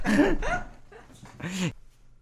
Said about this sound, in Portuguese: O meu cão gosta de foder a minha cama, by the way.